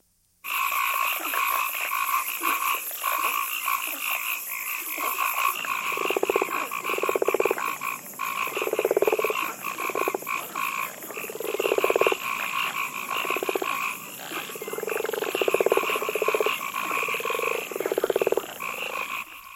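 A chorus of frogs croaks in a steady, overlapping rhythm, loud, over a constant high buzzing of night insects; no one speaks.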